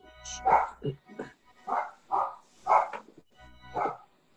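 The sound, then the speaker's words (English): Dogs bark repeatedly, about half a dozen sharp, fairly loud barks in an uneven rhythm with only brief pauses between them. “Tell them dogs to shit it up.”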